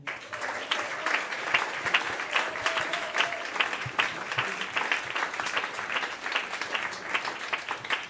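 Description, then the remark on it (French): Steady applause from an audience for a guitarist's quartet on stage at the Studio de l'Ermitage in Paris, dense overlapping claps sustained for several seconds at an even level, with no one speaking over it. “Vous pouvez applaudir au piano Monsieur Bastien Brison.”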